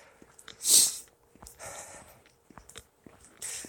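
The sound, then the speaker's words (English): A sharp, wet sniff, followed by a softer drawn-in breath and another quick sniff near the end, as someone with a drippy nose on a cold night keeps sniffling. “I'm going to have to go through this and listen because it's cold out and I have a drippy nose tonight. So I might miss a few drips. You won't hear the drips, you'll hear me breathing in.”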